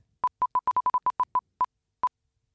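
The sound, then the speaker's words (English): A prize wheel spun to pick a rugby league team: about a dozen short, clear mid-pitched beeping ticks, rapid at first and then spacing out as the wheel slows to a stop on the Roosters, with no voices. “Uh, let's go ahead and spin the wheel again.”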